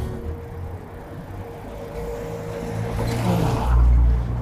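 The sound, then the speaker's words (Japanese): A car with a very low ride height drives past, its engine a low droning growl that swells toward the end with rising pitch, heard over steady outdoor background noise and no talking. “めちゃくちゃね、車高が低い車が今来ましたが。”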